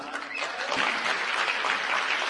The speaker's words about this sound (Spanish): Es la número uno, así es que darle un fuerte aplauso.